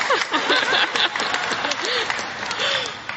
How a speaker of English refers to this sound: I have uh, two wonderful parents, a sister who's here, and she's sober, and that's amazing. And uh, oh, she gets applause.